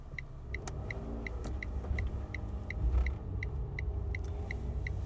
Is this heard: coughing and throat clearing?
no